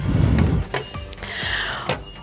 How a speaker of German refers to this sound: Ich sitze gerade im Zug, im ICE, von Berlin nach Köln